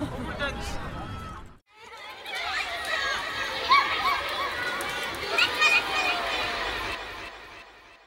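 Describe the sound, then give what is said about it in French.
Children shouting and chattering in a busy schoolyard, a dense, lively crowd of young voices with shrieks and laughter, steady after a brief pause near the start. “Des cris d'enfants dans la cour.”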